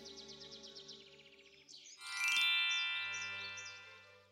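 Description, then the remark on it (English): Quick, bright bird chirps repeat in a steady run, then give way to a louder, ringing musical chime with sweeping high tones. No one speaks. “It is spring. The white birds come back.”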